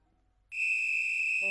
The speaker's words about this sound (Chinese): 体育老师浩布尔先生吹响了哨子，让大家安静下来